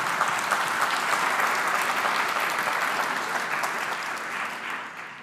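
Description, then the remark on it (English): A church audience breaks into sustained applause, a dense steady patter of many hands clapping that holds strong for several seconds before gradually thinning out toward the end. “You can, you can applaud that.”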